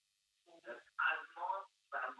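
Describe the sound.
A television plays in the background of a caller's phone line, its voices coming through thin and tinny in short bursts of talk, moderately loud and somewhat muffled.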